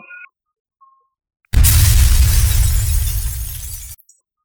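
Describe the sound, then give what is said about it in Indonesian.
A single loud explosion bursts in abruptly after a near-silent moment at about one o'clock at night, a heavy, rumbling blast with a roaring low end that holds for a couple of seconds before cutting off. “terdengar suara ledakan yang membangunkan orang seisi rumah Guntur”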